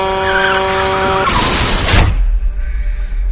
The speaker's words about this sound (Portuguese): A buzina de um grande caminhão é ouvida e tudo é muito rápido.